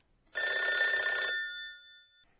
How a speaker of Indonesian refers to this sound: Dapatkah Anda bayangkan untuk suara apa kata berikut ini? Bururu. Apakah itu suara telepon? Betul, tapi huruf R-nya jangan diperjelas saat mengatakan ru dalam purururu.